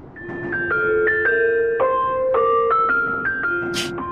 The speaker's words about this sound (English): You expect us to dance to that? That's not us. It's coming from this ice cream truck.